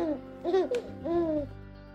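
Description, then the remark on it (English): A baby babbles in short, sing-song bursts of rising and falling coos, about three vocal phrases over two seconds, with a brief sharp squeal in the middle. “And last, there's a human baby.”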